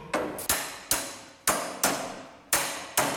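A series of sharp, ringing hammer blows strikes a heavy part about seven times at an uneven, steady pace to force it into place, each hit loud with a brief metallic decay. No voices are heard.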